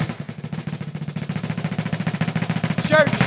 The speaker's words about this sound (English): Are you ready to hear the total? Okay. Drum roll, please.